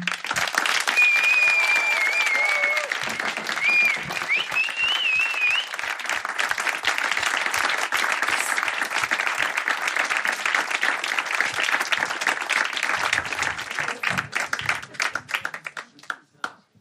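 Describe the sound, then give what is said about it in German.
An audience at a live reading show applauds the people who read on stage, loudly and steadily for about fifteen seconds, dense clapping with a few whistles and cheers at the start, then fading out at the end. “Und die sollen bitte auch einen riesigen Applaus haben.”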